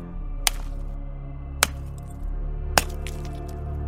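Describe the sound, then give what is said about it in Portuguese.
An ice pick strikes three times at steady intervals, chipping into something hard, each a crisp, bright, cracking impact over a low, steady background hum. “O segredo é o ponto certo. Vamos lá. Furador de gelo.”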